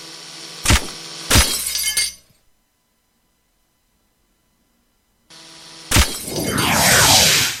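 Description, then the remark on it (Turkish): A video game level change sound effect as the game moves to level 2: two sharp glassy crashes, a few seconds of silence, then a loud burst that swells into a bright, sweeping electronic whoosh with gliding tones. “Arkadaşlar bölüm duyma sesini birazdan duyacaksınız. Yani bölüm değişme sesini.”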